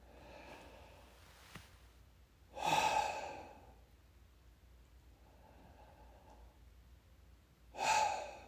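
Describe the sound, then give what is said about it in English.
A person takes slow, deep, heavy breaths, with two loud, airy exhales several seconds apart and a softer breath between them, set against quiet background hiss. “But first, I want you to begin by taking three deep, heavy breaths.”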